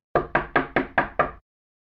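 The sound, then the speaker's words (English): Six firm knocks on Mike's door in quick, steady succession, fairly loud, each a sharp thud with a short decay, then silence. “I knocked.”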